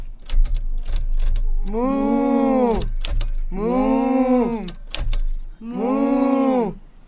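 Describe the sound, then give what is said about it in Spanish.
Farmer Brown's cows type on a typewriter in the story Click, Clack, Moo: keys clack in quick bursts at the start and between three long, loud, bellowing moos that dominate the sound, with no one speaking. “A sus vacas les gusta escribir a máquina. Todo el día las escucha.”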